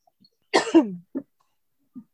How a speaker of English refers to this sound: Bless you.